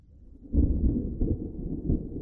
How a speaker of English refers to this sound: The thunder in your ears churns into the chaotic cheers of a crowd.